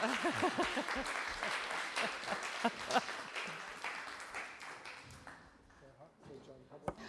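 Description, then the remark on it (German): An audience breaks into sustained applause for the interpreters, a dense wash of many hands clapping that gradually thins and fades over several seconds, with some voices murmuring underneath. “Also Vielleicht ein nochmal einen Applaus. Applaus an die Übersetzer.”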